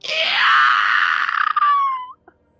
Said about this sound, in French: vous entendez un cri qui déchire la pièce. Et c'est pas un cri d'une créature, c'est pas un cri organique. C'est comme si le vent sifflait, comme si ça bouillait.